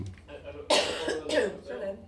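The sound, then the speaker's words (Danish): Two sharp, harsh coughs in quick succession, fairly loud, with a faint murmur of voice-like sound lingering around them. “Ja, jeg skal bare host.”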